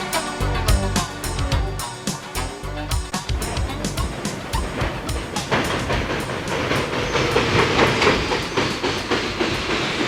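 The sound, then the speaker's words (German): A train rumbles along the rails with a rhythmic clickety-clack of wheels over track joints, loud, the metallic clatter continuing steadily as it comes to stop at a station. “Zwei Stunden später hielt der Zug an der Station Haunted Corner.”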